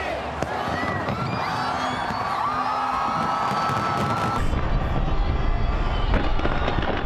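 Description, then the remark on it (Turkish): Fireworks burst repeatedly over a large crowd at the New Year's fireworks display at Sydney Harbour, where over a million people filled the shore. Sharp cracks and booms are layered on a steady roar of cheering voices and whistling rockets, loud and continuous throughout. “Sydney limanındaki havai fişek gösterisi için 1 milyonu aşkın kişi sahili doldurdu.”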